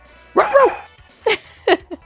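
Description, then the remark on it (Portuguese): A person imitates the barking of the small dog referee from the video game International Superstar Soccer Deluxe, unlocked with the Konami Code: one longer, wavering yap followed by three short, sharp yips, fairly loud, with brief pauses between them. “fez o barulhinho do cachorrinho latino aí, que era clássico fazer lá o Konami Code e você ativava o juiz cachorro, que poderia estar apitando o jogo”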